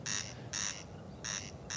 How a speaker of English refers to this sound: but that's one corncrake with its echo from a nearby house. If I was in the field speaking my voice wouldn't echo back off a house, would it? No. So it's a peculiar thing that that's what's happening with the corncrake's call.